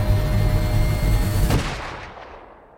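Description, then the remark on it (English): Gunshots fired into a packed train ring out over a dense, rumbling wash of noise, one sharp crack standing out, followed by a couple of fainter reports as the sound fades away. No one speaks. “You take a gun or someone takes a gun and they shoot into that train.”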